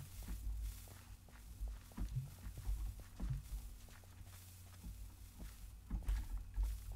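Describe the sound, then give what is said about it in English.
Minecraft block-breaking sounds as the player breaks blocks: a series of short, crunchy thuds repeating at an uneven rhythm over a low steady hum, moderately loud, with no talking. “All right, that's the that's the sound of my blocks I'm breaking, not someone behind me.”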